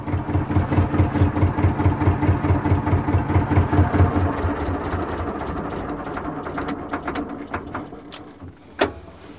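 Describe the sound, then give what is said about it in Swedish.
The two-cylinder engine of a restored vintage Victor tractor idles with a steady, low thumping pulse, loud and regular at first, then settling into a smoother rumble, with a sharp knock near the end. “Men mest klappar nog hjärtat i tvåcylindrig Victor-takt.”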